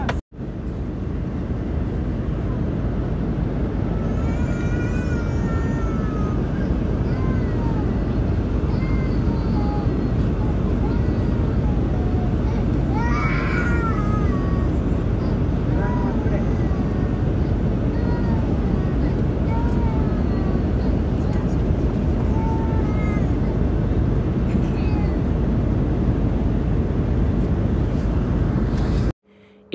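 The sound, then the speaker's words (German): A tired, exhausted child wails in scattered, high-pitched bursts over the steady, loud roar of an airplane cabin on a flight due to stop over in Abidjan, with the cries rising and falling across the half minute. “konntet gerade das heulende Kind hören.”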